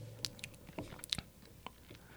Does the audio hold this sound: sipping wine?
yes